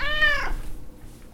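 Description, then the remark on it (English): A single cat meow, clear, rising then trailing off in under half a second, followed by quiet room tone. “Turns out that your feline friend has a special vocalization just for you, although you probably don't realize it,”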